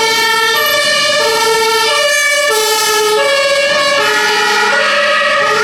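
A loud two-tone ambulance siren alternates steadily between high and low pitches, continuous, with no one speaking over it.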